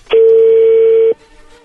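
A single loud, steady electronic telephone beep, a key tone as a phone number is dialed to make a call, holds one mid-pitched tone for about a second, then cuts off abruptly. Only faint hiss follows.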